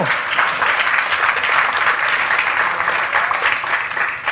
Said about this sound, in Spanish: Sí, den un aplauso a Cristo.